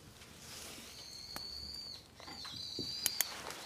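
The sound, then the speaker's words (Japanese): A few sharp metallic clicks of surgical forceps during continuous suturing of skin, irregularly spaced, with thin high-pitched squeaks drawn out between them over a quiet hiss; nobody speaks. “カチカチいってるのが監視の音ですね”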